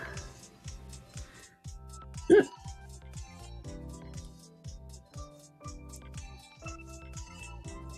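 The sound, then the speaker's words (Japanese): One sudden, loud hiccup pops out near the start, a short sharp catch of breath standing well above steady, rhythmic background music that carries on underneath. “しゃっくりが止まらん。”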